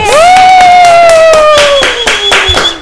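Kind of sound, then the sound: crowd, strong applause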